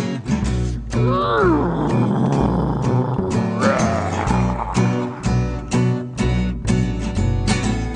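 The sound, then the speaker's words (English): Low, dinosaur-like growling and drawn-out groaning rise and bend in pitch, heard twice over a loud, steadily thumping musical beat that runs throughout. “Dinosaurs, brains like peas, jaws and claws and teeth and bone that used to growl and groan and moan.”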